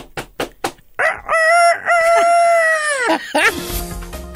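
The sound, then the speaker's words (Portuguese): A few quick taps lead into a single loud crow of a chicken from Indonesia, one long, drawn-out, strained call that ends in a burst of rustling noise. “Como é que é a galinha lá da Indonésia?”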